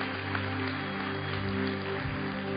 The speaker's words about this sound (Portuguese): Dá um aplauso forte aqui.